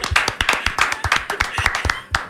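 A quick burst of hand clapping, a dozen or so sharp, bright claps in a brisk, slightly uneven rhythm, loud and steady for a couple of seconds with no voices over it.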